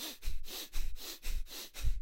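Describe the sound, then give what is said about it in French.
Rapid, forceful breaths pushed in and out through the nose in Bastrika Kapalbhati, the bellows variation of Kapalbhati breathing, the belly pushing out on each inhale and in on each exhale, about eight sharp huffs in two seconds in a steady pumping rhythm, fairly loud, with no talking. “Donc elle inspire, le ventre sort, elle expire, le ventre rentre, et puis ça va très vite, ça fait ce son-là.”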